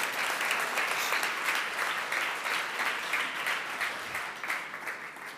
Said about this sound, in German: Lass uns die Jugendlichen verabschieden mit einem Applaus.